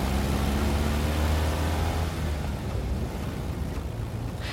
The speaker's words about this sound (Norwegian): I en bil på en eh, nedsnødd landevei suser Lise Lindbekk med den inngraverte skinnveska si ved siden av seg, og Nordahl Grieg.